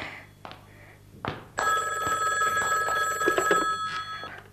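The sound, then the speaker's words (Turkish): A telephone bell starts ringing loudly after a couple of soft thuds, a sustained metallic trill that continues steadily with no one speaking, as someone is taking a soufflé out of the oven. “Ah, sufle yapmıştım da tam fırından çıkarırken telefon çalmaya başladı.”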